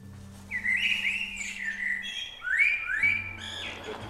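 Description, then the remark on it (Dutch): A caged songbird sings two lively phrases of bright, warbling whistles and rising chirps, clear, over a faint low hum, with no one talking. “maar er is één, één die zit in een kooitje of zo, Eén is een zangvogel ergens spinnen.”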